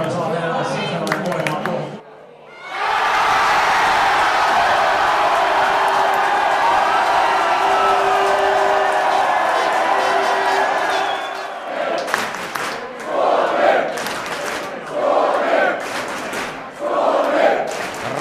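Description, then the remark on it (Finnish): A crowd in the Suomi bar in Berlin roars with loud, sustained cheering after Rantanen scores a goal for Finland, then shifts into rhythmic chanting of "Suomi!": a string of repeated, evenly spaced shouted bursts. “Rantanen teki maalin ja yleisö juhlii jo varmaa maailmanmestaruutta Suomi-baarissa Berliinissä.”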